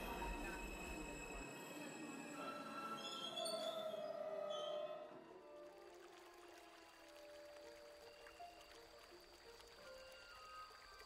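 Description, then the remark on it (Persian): A train slows to a halt at a small station with metallic wheel squeals and screeching brakes for several seconds, then settles into a quieter steady hum as it stands still. “قطار در ایستگاه کوچکی میان دو ایستاد”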